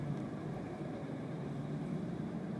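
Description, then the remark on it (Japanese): A steady car engine drone with accelerator noise heard from inside the car, a low rumbling hum with road noise that stays even throughout, with no voices. “で、今日の収録は、えっと、車の中でちょっと収録してますんで、まあ、ちょっとうるさいですね、アクセルの音とか入ってるとは思いますけれども、うん車の中で収録してるんで”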